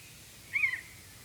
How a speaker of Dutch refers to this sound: Kijk, Jongens, kijk. Een buizerd.